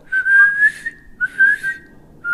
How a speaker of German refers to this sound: Nee, ich, obwohl, also meine Mutter hat immer so gepfiffen, so. Ja, ohne Ton. Nee, die hat versucht zu pfeifen, aber hat die, äh, hat die Luft eingezogen, ne?